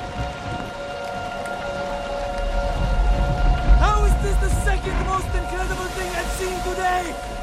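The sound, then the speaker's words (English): Heavy rain pours down around a boat rocking back and forth on the water in a steady, dense hiss, joined after a few seconds by wavering voice-like tones and sustained musical hums layered over the downpour. “The boat's rocking back and forth. Lots of rain.”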